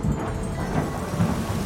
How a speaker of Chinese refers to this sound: 打雷之后下起了大雨。 奇怪，我听说这里不会下雨啊。 刚刚天气还那么好。